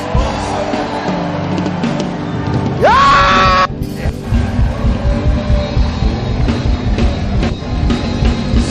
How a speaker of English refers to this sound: Look at your neighbor and tell your neighbor, neighbor, if I clap better than you and I shout better than you, I take your blessing and I add to mine. Somebody now clap your hands and shout.